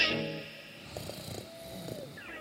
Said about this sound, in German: schnarcht leise neben ihr.